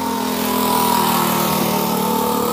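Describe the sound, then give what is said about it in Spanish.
A motorcycle engine drones outside, a steady buzzing rumble that swells slightly and holds fairly loud throughout, with no voices over it. “A ver si pasa el pesado de la moto.”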